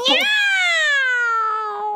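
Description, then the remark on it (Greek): A single long, drawn-out cat meow, loud, rising briefly then sliding steadily down in pitch over about two seconds, with no talking around it. “Κάτι θα υπάρχει σε εκείνο το ράφι και νιαουρίζει έτσι.”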